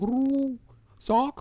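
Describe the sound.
A human voice imitates a dove's cooing with two drawn-out, hooting coos separated by a short pause, fairly loud.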